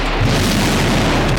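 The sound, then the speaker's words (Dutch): A loud, deep rumbling boom from a Russian kamikaze drone attack in Ukraine fills the whole moment, a dense low roar that holds steady without fading. No voices are heard. “Het is het geluid van een drone, een kamikaze-drone, waarmee Rusland de laatste week Oekraïne aanvalt.”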